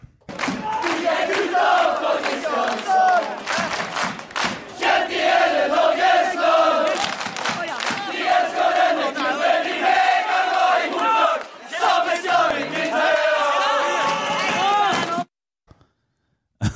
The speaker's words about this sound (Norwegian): Men, nå tar vi oss en liten jingle, og så går vi videre. Det er akkurat det vi gjør.